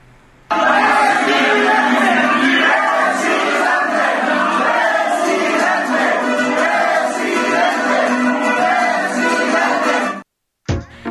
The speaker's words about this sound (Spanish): El caso es que Marcelo Ebrar de Aguascalientes se fue a Quintana Roo a respaldar a la candidata morenista a la gobernatura Mara Lezama y por supuesto también, vamos, se va a quedar atrás, también le gritaron presidente al carnal Marcelo.